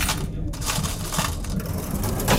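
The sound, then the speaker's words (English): A cash register till is slammed shut as a shop closes down, a dense metallic clatter and rattling shudder that stays loud for a couple of seconds. “Sounds of closing down, shudder of a till slammed shut”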